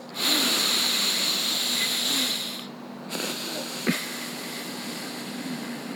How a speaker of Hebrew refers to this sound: נשימה ארוכה מהאף עד הסוף, ואז להוציא גם עד הסוף, כדי שיהיה את כל האפקט, אוקיי?